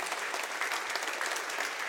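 A church audience applauding a musician who is filling in, a steady wash of many hands clapping at an even, moderate level with no voices standing out.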